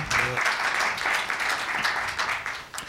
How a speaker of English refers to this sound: Uh, through various, yes, yes indeed, clap when you want.